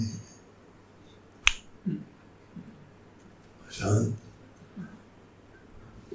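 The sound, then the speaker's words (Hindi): One crisp, sharp finger snap rings out over a quiet background, followed by brief low murmurs of a man's voice in the seconds after. “इसलिए आप जब जब चाहो अपने मन को चुटकी में”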